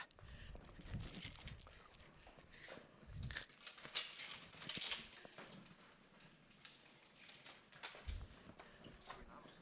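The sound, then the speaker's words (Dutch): A metal key being handled: soft rustling and scraping with a couple of brief, bright jingling clinks, fairly quiet and irregular, with no talking. “Ah, hier, wacht, de sleutel.”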